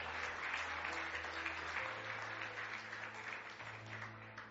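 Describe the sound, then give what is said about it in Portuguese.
A crowd at a religious service claps for Jesus steadily for several seconds, a dense, even wash of applause at constant loudness, with low sustained musical notes humming faintly underneath. “Bate palma para Jesus.”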